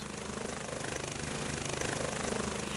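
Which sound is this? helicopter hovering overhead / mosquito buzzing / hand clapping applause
helicopter hovering overhead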